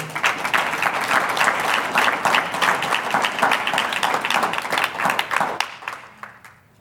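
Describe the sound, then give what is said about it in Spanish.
A large crowd applauds the Lord steadily for several seconds, dense overlapping clapping filling the space, then tapering off toward the end. “Un aplauso al Señor.”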